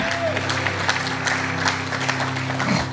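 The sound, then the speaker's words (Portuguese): An audience applauds to give glory to God, in a dense, steady wash of clapping lasting a few seconds, with a low sustained tone underneath and faint crowd murmur. “E quem recebe, aplauda ele, dando dando glória a Deus.”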